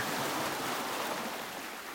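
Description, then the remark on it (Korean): A steady, broad rush of ocean surf, waves born far out at sea approaching the shore, washes on without pause, a continuous hiss and roar of waves with no voices and no distinct individual breaks. “가늠할 수도 없는 먼 바다에서 태어난 파도가 흔들림 없이 다가오는 것이 보인다.”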